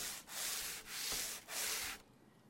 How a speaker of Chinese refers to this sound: 他只是一个劲儿的擦洗着已经废弃了的两轮拖车，我听着姥姥拿刷子蘸水的声音，觉得如坐针毡。